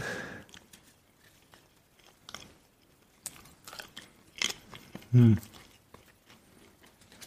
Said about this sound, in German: Es sieht aus, als würdest du, würdest du Hostien aus der Kirche äh, essen. Das sind wirklich Backoblasen. Das Papier.